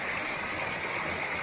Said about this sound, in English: check out the uh, little bit of cascade here. There we go. Little mini waterfall. Check this out. water cascading down.